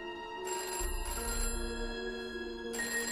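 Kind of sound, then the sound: household object, telephone ringing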